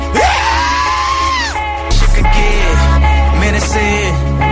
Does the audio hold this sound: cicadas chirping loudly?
no